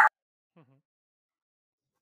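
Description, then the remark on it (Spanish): A single sharp, loud bark from a female dog at the start, followed half a second later by a faint, brief whimper that falls in pitch, then silence. “Vale, vamos a proseguir en el podcast eh, con la perra incluida, porque si no, no va a haber manera de acabar este episodio.”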